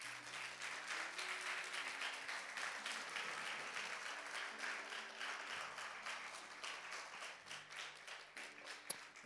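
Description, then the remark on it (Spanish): An audience applauds the Lord at a night service in an auditorium, many hands clapping steadily in a dense, sustained roar, with low sustained tones from an organ or keyboard underneath and a sharp click near the end. “¿Cuántos tizones le aplauden al Señor en esta noche?”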